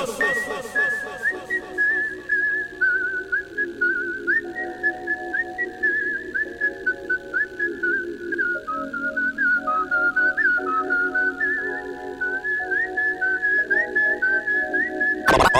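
A high, steady whistle tone runs almost continuously, wavering slightly in pitch, layered over a looping musical backing of shifting low chords.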